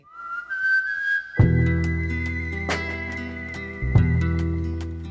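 A clear, high whistled melody from a film score opens alone with long sliding notes, then a full band with heavy bass and punchy accents kicks in underneath it.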